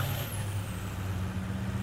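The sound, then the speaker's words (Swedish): A large military truck carrying soldiers pulls up, its diesel engine rumbling heavily, with a sharp hiss of air brakes near the start as it comes to a stop. The deep idle continues steadily throughout. “En stor lastbil med militärer dyker upp och ni erbjuds skjuts till närmsta sjukhus.”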